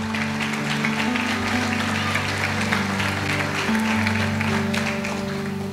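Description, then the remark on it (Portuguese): An audience at a church service claps and applauds for the Holy Spirit and Jesus, a dense wash of hand claps over a sustained low organ or keyboard chord that shifts pitch a few times, with no voices standing out. “Então aplauda Ele e a Jesus, que Ele é bom.”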